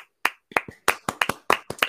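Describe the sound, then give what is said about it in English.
Hands clap about a dozen times in quick, slightly uneven succession, each clap a sharp, bright smack, with no voices alongside. “but it, it deserves a hand clap”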